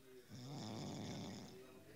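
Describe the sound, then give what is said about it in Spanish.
A person snores once, a long, rough rattling breath lasting about a second, fairly soft, with quiet background sound before and after. “Está roncando.”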